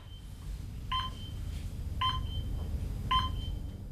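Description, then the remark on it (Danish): Three short telephone keypad dialing tones, evenly spaced about a second apart, each a brief two-pitch beep over a steady low background rumble, with no one speaking. “altså pludselig skulle jeg kun kommunikere med andre mennesker ved at ringe til dem”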